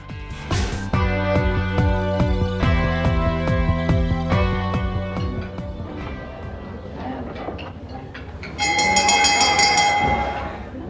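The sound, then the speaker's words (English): A dinner bell rings out in a series of loud, sustained tonal chimes with rich overtones, ending in a bright, high, shimmering ring that fades away. No one speaks. “Well, that's the dinner bell, which means it's time for our dinner party question.”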